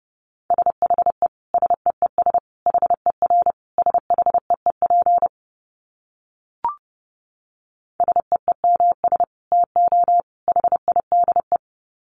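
Fast Morse code sent at 30 words per minute in a steady mid-pitched beep, keyed into quick groups of short and long tones. The sending stops for a couple of seconds, broken only by a faint click, then resumes.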